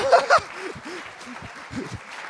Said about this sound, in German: aber ich würde es so spitze finden, dass wir ihn nochmal so richtig ehren und mit einem knackigen Applaus willkommen heißen.